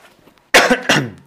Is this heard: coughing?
yes